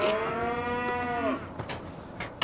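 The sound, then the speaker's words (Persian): A cow at a dairy farm lets out one long, loud moo with a steady, harmonic-rich tone that drops slightly in pitch before fading, followed by a few soft rustles and a brief noisy burst at the end. “عجب گاویه”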